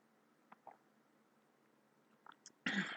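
food or drink, sipping a little water

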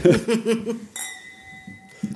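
household object, glasses clinking

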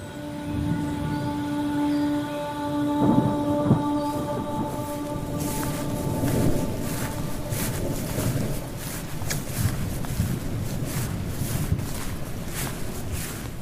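nature, thunderstorm with rain

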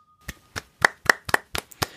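crowd, hand clapping

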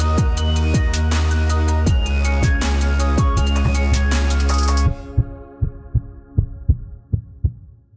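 sound effect, heartbeat sound effect

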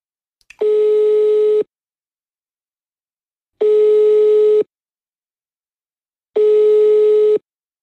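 signal or alarm, telephone ringing tone

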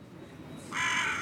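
bird, crows cawing overhead

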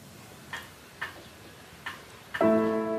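household object, pendulum clock ticking

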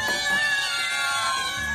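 animal, cat meowing

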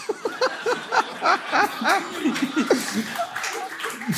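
crowd, audience clapping

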